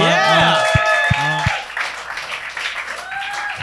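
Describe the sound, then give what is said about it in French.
An audience breaks into applause, a dense wash of clapping that starts loud and gradually thins out, while voices and some whooping carry over the top. “Applaudissez pas tout de suite!”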